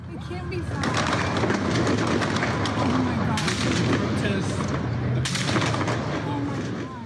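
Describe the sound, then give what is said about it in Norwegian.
Heavy gunfire during a protest in Dallas, with at least 50 shots fired, rings out in repeated loud bursts and sharp cracks over a continuous din of many people's voices in the background, with shooting nearly nonstop throughout. “En video på Twitter viser et høyhus, og vi kan høre mennesker i bakgrunnen og mye skyting.”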